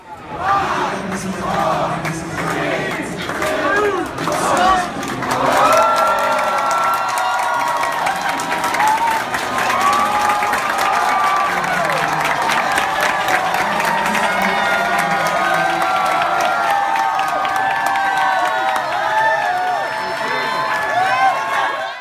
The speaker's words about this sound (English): But listen to this crowd here as they as they open up the uh, the store for for the residents.